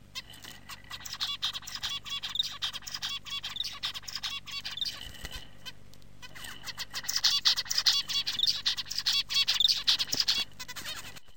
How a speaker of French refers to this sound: Écoutons maintenant la mélodie vocale d'un autre oiseau chanteur, le diamant mandarin, ou plus simplement appelé le mandarin, et il s'agit ici du mandarin mâle.